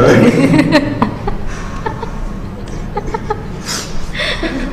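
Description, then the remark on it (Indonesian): A person mimics a startled chicken with a burst of squawky, clucking vocal sounds, mixed with chuckles and voices over a busy background. “coba kalau gini ayam”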